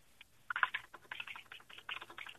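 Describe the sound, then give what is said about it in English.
Rapid computer keyboard typing, a quick irregular flurry of clicky keystrokes, with no voices. “That's nice. that typing. Nice. Dancing on the keys.”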